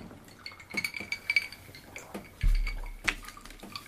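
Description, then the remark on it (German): Glasses clink together in a toast, several bright, ringing taps with a soft knock or thump in the middle and a final clear chime. “Prost, genau. Ja, cool. zum Wohl.”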